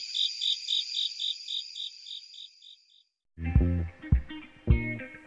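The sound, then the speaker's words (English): Crickets of several species call from different heights in a steady, rapid series of high pulsing chirps for about three seconds, then stop abruptly as louder music with deep bass takes over. “it's almost like you're changing the station on cricket radio.”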